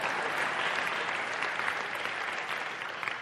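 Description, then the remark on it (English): A crowd applauds for people called out by name at a church service, steadily, a dense wash of many hands clapping at once that stays even and fairly loud for a few seconds without any voices on top. “Clap.”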